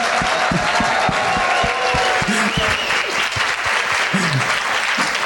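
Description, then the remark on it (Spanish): A room full of people claps steadily for several seconds, dense and loud throughout, with a murmur of voices and a few faint calls, welcoming the start of a live recording after a workshop. “Así que un fuerte aplauso por favor chicos, bienvenidos.”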